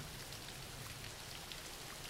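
Steady rain falling in an even, continuous hiss, with soft patters of drops across a broad wash of noise and no voices, holding at a constant moderate level.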